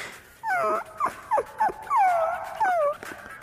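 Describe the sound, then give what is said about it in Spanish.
A dog whimpers and whines in a series of high, wavering cries, several short yelps followed by longer drawn-out whines, fairly loud with no talking. “Pero un perro que le están apretando el huevo.”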